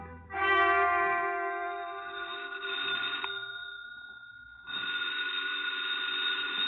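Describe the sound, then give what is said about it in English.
A telephone rings twice, a loud, bright electronic trill with a short pause between the two rings and no voices. The second ring runs to the end. “My half conscious musings didn't move me forward any, but the phone call that awakened me did.”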